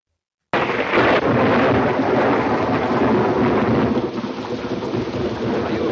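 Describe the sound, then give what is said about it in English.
Thunder rumbles loudly and continuously over steady heavy rain, starting abruptly after a brief silence and rolling on without any voices, full-bodied. “afraid of thunder? Oh, no. Just the noise. You, you know what thunder is, don't you?”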